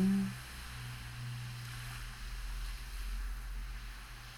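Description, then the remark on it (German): Ocean waves wash steadily back and forth onto a sandy beach in a continuous, rushing hiss, with a low rumble underneath that swells slightly partway through. No voices. “Du siehst vor dir, wie das Wasser an den Strand gespült wird.”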